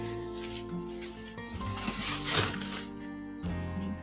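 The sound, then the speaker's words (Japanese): Plastic crinkles and rustles as an unwanted plastic bag is handled while tidying up, growing loudest near the middle, with steady background music running underneath throughout. “このビニール袋はいらない。”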